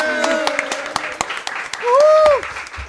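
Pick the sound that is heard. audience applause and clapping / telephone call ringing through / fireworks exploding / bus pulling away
audience applause and clapping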